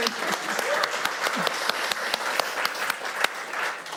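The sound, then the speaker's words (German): Steady applause from a crowd, many hands clapping in a dense, continuous patter with a few sharper individual claps standing out, and faint voices mixed in underneath. “Dann sich jetzt so viel klatschen, das war echt richtig gut.”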